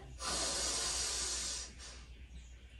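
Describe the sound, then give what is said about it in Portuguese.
A single deep, audible inhalation during a yoga breathing exercise, legs hip-width apart and palms facing up, a loud airy rush lasting about a second and a half, then a brief fading breath and quiet. No one speaks. “Palmas das mãos para cima, inspira.”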